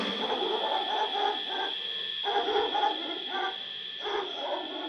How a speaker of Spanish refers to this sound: A lo lejos, un perro.